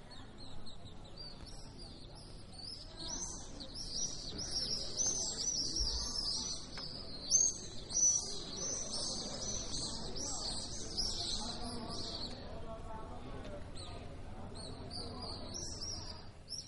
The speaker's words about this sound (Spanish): El tercer sonido nos lleva al atardecer del Salento, los que hoy son los vencejos en el atardecer de Otranto.